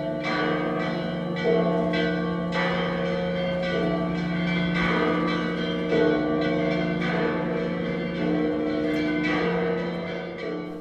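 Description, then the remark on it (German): Several large church bells of the Church of the Holy Sepulchre in Jerusalem ring together in a full, continuous peal, their overlapping strikes and long resonant hum filling the air with a dense, rolling clangor. “So klingt die Grabeskirche in Jerusalem, wenn das Glockenspiel voll im Gange ist.”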